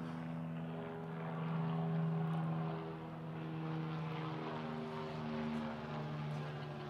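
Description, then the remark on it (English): A helicopter drones overhead, its steady rotor and engine hum filling the whole stretch, swelling slightly midway and staying loud and continuous with no voices. “Helicopter.”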